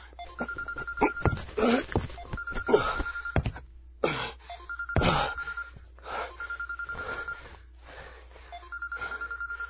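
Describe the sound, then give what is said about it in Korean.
A mobile phone rings in repeated bursts of a bright electronic trill, pausing steadily between rings, while scattered thumps and rustling movements break in over the first half. “전화?”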